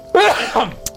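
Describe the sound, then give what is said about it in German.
A single loud sneeze from a yearly Christmas-time allergy: a sharp voiced intake-like burst followed by a breathy second release, ending with a short click. No talking. “Also, Gesundheit.”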